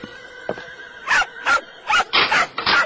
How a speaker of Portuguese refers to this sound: Mimi, minha querida Mimi, esperavas, Miminha linda. Falas com a cachorrinha como fosse uma pessoa.